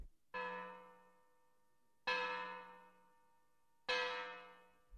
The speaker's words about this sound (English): It was eleven o'clock on Sunday night. Sykes and Fagin heard the church bell.